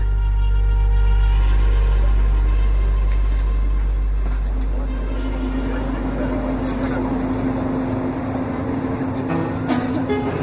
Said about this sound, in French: Station berry Encore en métro